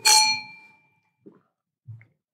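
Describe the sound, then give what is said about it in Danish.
Glasses of sherry clink in a toast: a bright glass clink rings out with a shimmering tone that fades over about a second, followed by two soft, brief knocks, as if glasses are set down or lightly touched. “Nå, men, øh, skal vi lige smage på den? Skål. Skål.”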